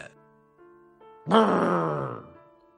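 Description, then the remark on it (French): A female donkey being beaten with a stick cries out in pain: one loud, drawn-out groaning bellow that bursts in suddenly and slowly sags away, after a few faint, low humming tones. “cria le pauvre animal.”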